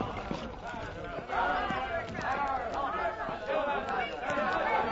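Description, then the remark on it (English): A rowdy mob jeers and shouts as it taunts and pursues a woman, a dense, overlapping clamor of many voices rising louder after the first second and staying agitated and continuous throughout. “What is that mob? Why do they taunt the woman?”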